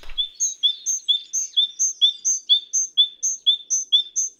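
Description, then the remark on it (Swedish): A great tit sings a steady two-note phrase, a high note then a lower one, repeated about nine times like a squeaking bicycle pump. Clear, with no talking. “Men vissa är inte så tresteg utan låter mer som en cykelpump.”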